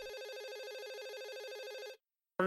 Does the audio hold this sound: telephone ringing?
yes